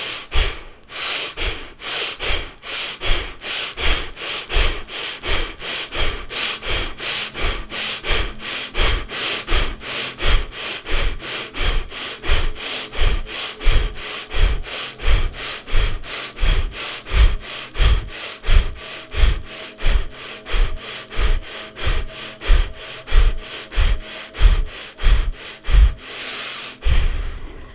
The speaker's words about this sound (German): Du wirst wahrscheinlich meine Ausatemluft hören. Nimm das gerne so als Taktgeber.